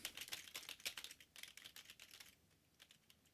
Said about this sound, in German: So, und jetzt kommt die andere Tastatur.